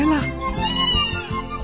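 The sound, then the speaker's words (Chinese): A person imitates a little yellow cat in a children's story about pulling up a radish, voicing a few short, rhythmic meows in a bright, childlike tone, steady in loudness with no other sounds around them. “小黄猫，快快来，快来帮我们拔萝卜。 喵喵喵，来了”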